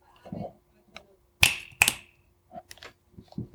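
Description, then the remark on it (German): Two crisp, loud finger snaps in quick succession, with faint murmuring and small rustling sounds before and after. “Ja, ich bin bei 42, 30 ist ja, der Schnipser.”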